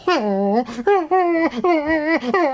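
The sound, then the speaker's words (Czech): A dog whines and cries in four drawn-out, wavering wails separated by short breaths, fairly loud, with a plaintive, almost sobbing tone. “ty pláčeš, ale no tak, teď je to jenom zkouška.”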